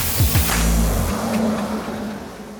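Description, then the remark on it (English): A school bus's engine roars loudly as it accelerates hard out of a warehouse onto a road leading out of town, its pitch sweeping up quickly before settling into a steady, rumbling drive that gradually eases off. “We launched out of the other side of the warehouse and onto a road leading out of town.”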